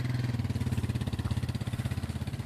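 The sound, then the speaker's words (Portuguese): A parked motorcycle engine idles with a steady, throbbing low rumble, its pulses repeating evenly and the pace quickening slightly toward the end, on a fajã reached only on foot or by motorcycle. No one speaks. “E vi esta moto parada ali mais à frente.”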